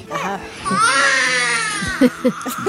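A newborn baby girl cries in one long, rising wail with a strained, high-pitched tone, followed by a few short, choppy sobbing bursts near the end.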